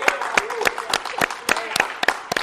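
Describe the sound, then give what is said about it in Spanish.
Audience applause in a steady rhythmic beat, about nine sharp, loud claps in under three seconds, with faint voices murmuring underneath. “señor, aplauso.”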